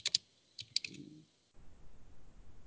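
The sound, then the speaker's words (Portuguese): A few quick, crisp computer keyboard clicks as an online search is typed, in short bursts during the first second and a half, followed by a low, steady background hum with no voices. “vou até pesquisar aqui a altura do Shane Long”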